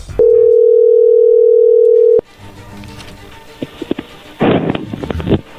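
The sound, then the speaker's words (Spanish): A steady, low-pitched telephone ringing tone holds for about two seconds as a call is dialed, then cuts off into faint rustling, clicks and handling noise. “no haga ruido, ahí se está marcando.”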